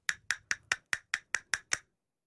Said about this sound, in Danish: Altså to askebær, To askebær, som ligger ovenpå på hinanden, bundet sammen af et stykke snor, og så når man sådan slår dem mod hinanden med fingrene, så siger det sådan her.